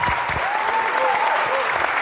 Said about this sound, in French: merci, merci pour ces trois lives extraordinaires ce soir. On peut applaudir encore une fois, s'il vous plaît.